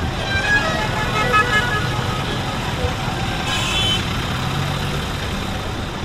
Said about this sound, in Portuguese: Há viaturas em contramão neste trânsito caótico.